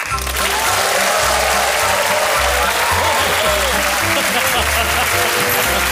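A studio audience applauds loudly and steadily for several seconds to welcome Santa Claus, a dense wash of clapping with some faint voices mixed in, over a low rhythmic musical bass pulse.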